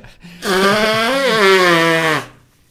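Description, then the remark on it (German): Someone with a cold blows their nose once, hard and loud, producing a buzzy, honking tone that holds a fairly steady pitch for nearly two seconds, with no talking over it. “Warte mal, jetzt muss ich ausschnauben.”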